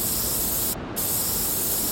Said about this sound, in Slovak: Hana stisne flakón a svetená voda s cesnakom vystrekne.